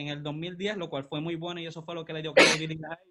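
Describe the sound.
A person talks steadily, then a single loud, abrupt sneeze bursts out near the end, briefly cutting through the speech before talking resumes.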